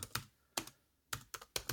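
Quick clacking keystrokes on a computer keyboard as a text query is typed, in uneven bursts, some strokes landing in tight pairs, crisp and fairly faint with brief quiet gaps between. No one speaks.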